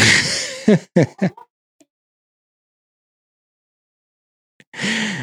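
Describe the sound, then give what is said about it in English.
Children's voices shout over one another as they come in yelling at each other, a burst of short, loud yells, then quiet for a few seconds before another outburst of yelling starts. “you always know it's something when they all come in yelling at each other, left and right.”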